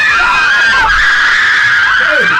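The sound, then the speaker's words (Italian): A crowd of girls screams below the open window of a radio station: a continuous, high-pitched roar, many voices overlapping in a loud, sustained wash with shrill peaks rising and falling throughout. “Ma è pieno di, di, di ragazze sotto. Guarda, apro la finestra della radio.”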